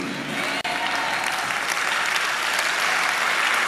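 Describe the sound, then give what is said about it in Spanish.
A crowd claps loudly and steadily throughout, a dense wash of applause with a brief dropout near the start before it resumes at full strength. “Dámele el aplauso fuerte.”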